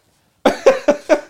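After a moment of silence, a rapid run of sharp, breathy sneezes bursts out, about five in a steady rhythm, each loud and explosive, with no talking.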